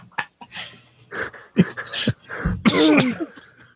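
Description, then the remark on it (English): Several harsh, sputtering coughs burst right up against the microphone, loud and close, ending in a longer strained, choking fit with some voiced wheezing. “I'm sorry if I coughed into the mic.”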